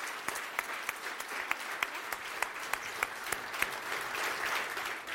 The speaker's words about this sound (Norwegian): Og der lar vi applausen for de dyktige unge politikerne avslutte denne episoden av Der livet leves.